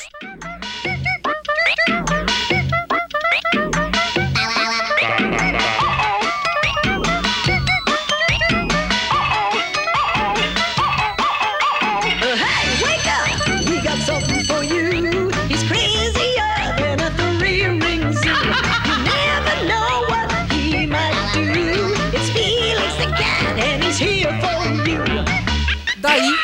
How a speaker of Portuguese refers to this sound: essa musiquinha aqui que a gente acabou de escutar era a abertura do desenho Gato Félix